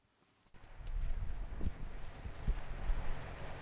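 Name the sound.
wind blowing outdoors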